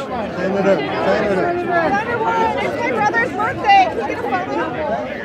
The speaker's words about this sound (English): some context here it's notoriously difficult to gauge actual support by crowd size, especially at the fair. But these crowds didn't let up when she left the soapbox stage.